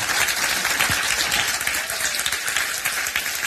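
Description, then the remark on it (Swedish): Sustained applause from an audience thanking the performers, dense overlapping clapping that stays loud and steady throughout with no pauses. “och att ni tackar dem med en varm applåd.”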